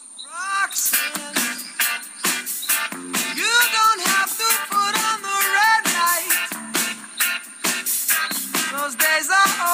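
A rock song plays loudly and steadily, a sung vocal with sliding, held notes riding over punchy drums and a full band, with no one talking over it.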